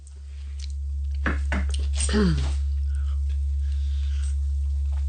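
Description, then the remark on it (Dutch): A person takes a bite of sour food during a taste experiment: crunchy bites followed by wet chewing, a few sharp crackles and smacks in quick succession, with a brief low murmur partway through. “Neem een hap.”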